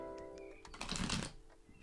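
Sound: shuffling tarot cards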